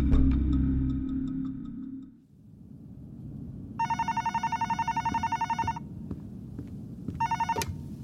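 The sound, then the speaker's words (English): An old-style telephone bell rings in rapid trilling bursts, one long ring followed by a shorter second ring, fairly loud, over a low background hum with no talking: a phone call from the front desk to a guest's room. “Shortly after I had read the letter, I received a phone call from the front desk.”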